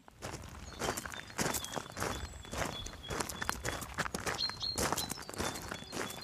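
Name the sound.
footsteps walking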